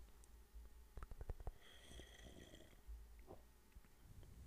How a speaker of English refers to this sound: listen to me take a sip of my coffee.